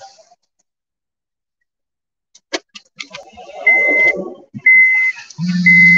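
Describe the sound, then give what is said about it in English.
A few clicks, then a series of short, high-pitched electronic beeps repeating at a steady pace, loud, with a low hum underneath near the end. “As you hear the little beep beep, who got the keys to the Jeep?”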